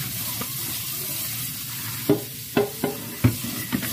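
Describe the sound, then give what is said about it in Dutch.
Dirty soaking water, fouled with sea residue, is poured away from a container of stems being cleaned, in a steady rushing hiss, with a few short knocks and clinks in the second half as the container shifts. No one speaks. “Dus we beginnen met het weggooien van het water.”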